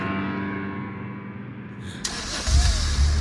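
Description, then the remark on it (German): A low steady hum gives way to a sudden burst of noise as a car engine starts up, then revs with a deep, loud rumble, with no talking. “Moment mal, das klingt ja wie meine shit.”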